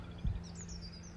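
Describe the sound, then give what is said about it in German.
Faint chirps from small birds, a few thin high tweets drifting through an otherwise quiet outdoor setting on a long field path leading toward a forest, with a soft low rumble underneath. “Aber höret einfach mal in die Stille Vielleicht hört ihr auch die Vöglein zwitschern.”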